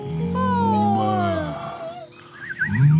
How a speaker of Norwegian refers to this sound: Oi! En hel flokk med kuer! så fantastisk.